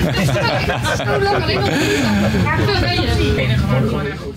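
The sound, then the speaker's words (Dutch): Many overlapping passenger voices chatter at once in a busy train compartment, with a steady low rumble of the moving train underneath, loud and continuous throughout. “het is hier gezellig in de coupé, ik hoorde je vraag niet.”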